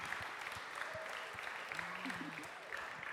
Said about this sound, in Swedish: Welcome, welcome, more people. new to City Church? ny i Citykyrkan. Give them a big hand.